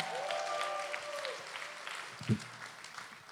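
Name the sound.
audience applauding and cheering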